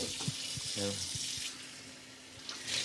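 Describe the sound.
Water runs steadily from a tap in a continuous bright hiss throughout, as if something is being rinsed under it, while a voice briefly murmurs beneath the flow.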